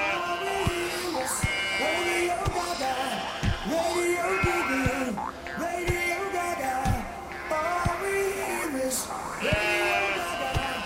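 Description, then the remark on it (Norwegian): A cow lets out a string of odd, wavering moos and bleat-like calls, loud, over a steady beat of deep thumps that repeats throughout. “Nei, men hva er det kua holder på med her? Spiller den fotball med sauene på nabogården”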